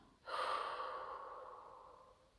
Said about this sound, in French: Allez, encore une fois. Inspire. Bloque ta respiration quelques secondes et expire.